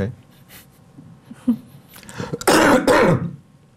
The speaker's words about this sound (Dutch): Daar moet ik even van hoesten.